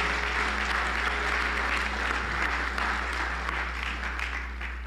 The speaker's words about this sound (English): Can we just give a round of applause one more time? Let us just praise him.